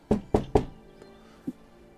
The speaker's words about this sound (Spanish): La carreta va y viene. y escuchan un golpe. De, ¿Cómo es? De madera.